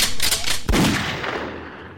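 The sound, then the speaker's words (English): A loud gunshot sound effect: a quick flurry of sharp shots followed by one heavy blast that rings out into a long, fading reverberant tail, with no voices. “You killed me is, with that gunshot, man.”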